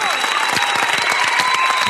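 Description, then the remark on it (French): Dense applause from a crowd fills the whole moment, many hands clapping steadily and loudly for a guest present that evening, with faint voices mixed in underneath. “que j'applaudis, qui est avec nous ce soir,”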